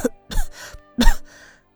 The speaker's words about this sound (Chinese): 他一时气短，就说不下去了，只是蒙在被子里咳嗽，咳了一会儿